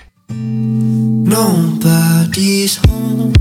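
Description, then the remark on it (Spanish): A pop song plays loud, with a sung vocal line over sustained synth chords and bright, crisp percussive bursts, after a brief silent moment at the start. “Y así se juntan y hacen esto que sí suena muy pop, pero la música de hoy.”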